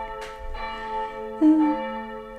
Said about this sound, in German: so, meine Lieben, was ihr hier gerade hört, sind die Kirchenglocken aus Guldenthal, denn da sind wir heute.